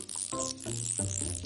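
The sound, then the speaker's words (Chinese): A gray dolphin clicks in a rapid rattling stream, layered with a steady high hiss and a few buzzy tonal squeals that shift pitch. No one speaks. “海豚游到他们身边，围着他们欢快的转着圈儿，还发出了咔嗒咔嗒的声音。”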